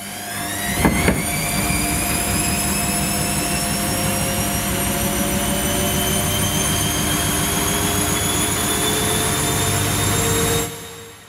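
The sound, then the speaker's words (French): A washing machine on its spin cycle, a loud, steady mechanical roar with whining tones that slowly climb in pitch as the drum speeds up, then it cuts off abruptly. “Une machine à laver en mode essorage, ça fait du bruit.”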